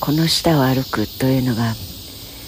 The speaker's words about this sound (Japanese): セミさん溢れてます、まあ、今年の夏始まりは関東はセミさんがいない声が聞こえない実はこの降ってくるようなセミの声